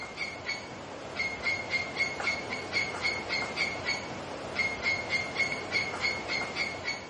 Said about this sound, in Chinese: 这里还有一个彩蛋，这就是我每天在营地里边听到的河水的声音和虫子的叫声，那这也是一段视频的声音。啊，这段视频记录了我们义工在那里生活的一些情况。